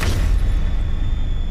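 A single heavy object slams against a large metal door with a thick latch, making the door shake; a loud boom followed by a deep, lingering low rumble that fills the rest of the moment with no voices.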